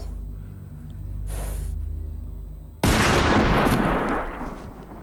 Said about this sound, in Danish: Hvad fanden laver du, mand? Hvad helvede laver du, mand? Skyder du mine køer?